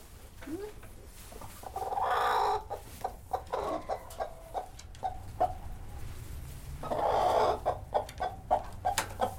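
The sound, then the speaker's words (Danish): A broody hen on a farm clucks in low, rhythmic bursts, with two longer, louder drawn-out squawking calls rising above the steady grumbling, all over a faint background hum. “Se, hun er skruk. Det kan man se den måde, hun snakker på.”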